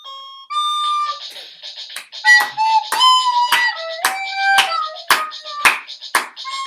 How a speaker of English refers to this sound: I remember the recorder I had when I was getting out much lower notes and lower tones. This is this is not like, but you can make a noise with it.